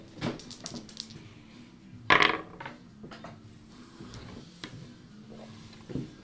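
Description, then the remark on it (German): Dice rattle and clatter across a hard tabletop in a burst of sharp clicks, with a louder tumble in the middle and a few scattered taps before settling on a 9. Fairly quiet, no talking. “Ja, würfel doch mal.”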